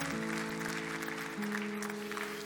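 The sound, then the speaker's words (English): A church audience claps and cheers steadily for Philly Tab, a dense wash of applause with scattered whoops, while a sustained low organ-like tone hums underneath throughout. “Come on, let's cheer for Philly Tab.”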